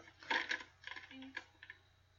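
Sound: paper crinkling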